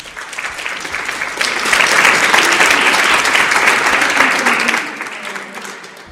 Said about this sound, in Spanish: O sea que muchas gracias a todas. Pues un aplauso para todas vosotras.